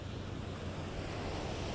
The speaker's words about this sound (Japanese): なので、えー、アニメ漫画有名な「スラムダンクアニメのですねオープニングでも、えー、鎌倉高校駅前の踏切が出てきたんですけれども、芸能伝とともにね、えー、そちらの駅の前、降りてすぐのですね海から収録をしております。